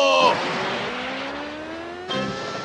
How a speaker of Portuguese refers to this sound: Agora pise no acelerador devagar. Ah! Viva! Até que enfim o carro foi pra frente! Eu falei devagar!